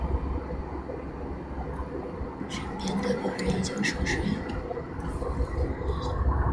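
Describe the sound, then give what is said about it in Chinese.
A steady, low airplane engine rumble fills the cabin of a plane flying to Chengdu just after midnight, a constant droning roar, while a person speaks softly, almost whispering, over it. “婴儿的啼哭，飞机轰隆隆的声音，人来人往偶尔的走动声，前排来人轻微的鼾声，”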